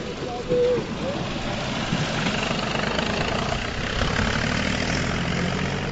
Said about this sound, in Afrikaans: Wil jy vinnig vir ons vertel maar hier's nou 'n trekker uh verder in die pad aan die kom. Lyk vir my na spitsverkeer. Ons moet seker so effens uit die pad uit staan.